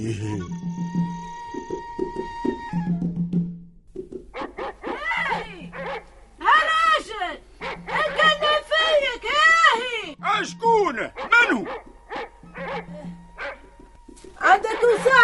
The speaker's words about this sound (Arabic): سر سر سر هذه الكلاب كلها بيك يا ولية آه، اش قلتي سامحيني الكلاب ما خلونيش نسمع